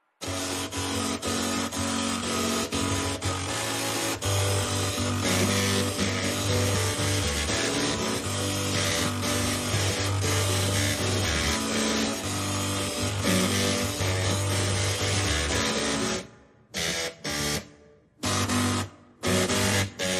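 A pop tune played on two printers and four floppy drives: loud, buzzy mechanical tones stepping through a melody over a steady pulsing beat, then breaking into short stuttering bursts near the end.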